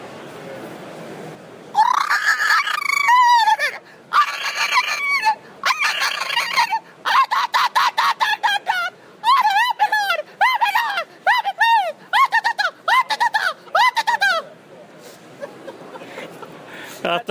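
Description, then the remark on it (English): A person uses a natural voice call to imitate the call of a male chupacabra: loud bursts of high, squawking, honk-like cries that swoop up and down in pitch, repeated rapidly for about twelve seconds before trailing off. “I think that was an excellent rendition of the Chupacabra call.”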